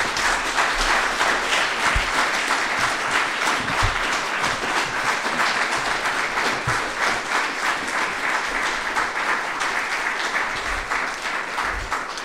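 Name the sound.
audience round of applause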